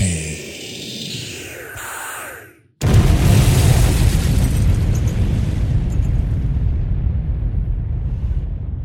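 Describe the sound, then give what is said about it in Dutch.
A rising whoosh cuts to a brief silence, then a massive booming explosion erupts and rumbles on for several seconds, loud and deep before slowly fading. “De bal werd warmer en warmer en warmer tegen zo'n hoge temperatuur dat dat leidde tot wat wij allemaal kennen als de beek.”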